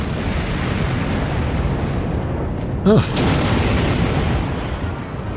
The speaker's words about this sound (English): And again, those explosions are just fantastic. They really are. And they've they've done some good work with this.